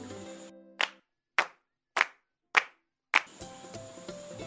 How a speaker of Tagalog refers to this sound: Pumalakpak nga ng limang beses